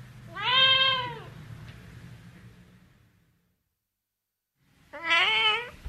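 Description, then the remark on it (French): A cat meows twice, loud, drawn-out and tonal, with a pause of several seconds between the calls; a low rumble under the first meow fades to silence. From the work Interview with a Cat by Marcel Broodthaers, recorded at the museum of modern art, Département des Aigles, 12 Burgplatz, Düsseldorf. “Ceci est une interview recueillie au musée d'art moderne au département des Aigles, 12 Burgplatz à Düsseldorf. Alors, euh, c'était l'Interview with a Cat.”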